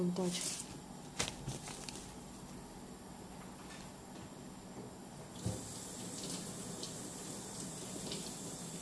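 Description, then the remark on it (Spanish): Celery stalks being rinsed under a running tap, a steady stream of water with occasional knocks and splashes as they are handled in the sink. “Y los voy a lavar.”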